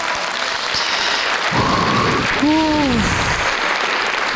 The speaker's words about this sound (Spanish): Ahí los aplausos todavía.